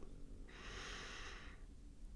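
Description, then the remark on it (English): A single slow, deep breath, a soft airy whoosh lasting about a second, heard alone against a low background hum with no talking. “helps to calm your mind um, and the thoughts that are going to and fro, uh, pulling your mind to different spaces by focusing on our breathing.”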